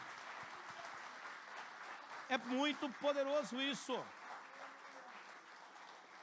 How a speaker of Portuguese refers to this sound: Aleluia. Pode aplaudir o Senhor.